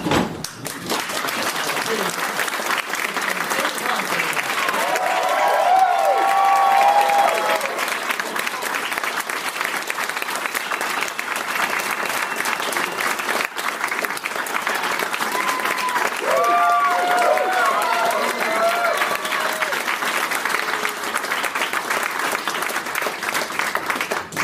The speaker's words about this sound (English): Uh, can we please uh, start a little clap going here?